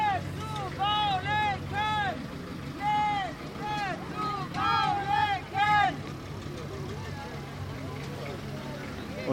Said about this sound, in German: Wir hören einige Sprechgesänge, während sich die schöne Britsche im blauen Wagen langsam nach vorne begibt.